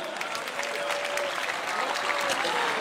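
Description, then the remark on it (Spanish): A large audience claps together in sustained, dense applause for Christ that fills the space evenly for a few seconds, with faint voices mixed into the clatter of many hands. “Dale un fuerte aplauso a Cristo, hermano.”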